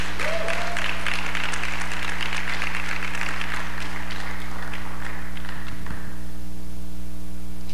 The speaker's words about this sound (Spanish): Si lo cree, dale un fuerte aplauso al que vive por los siglos.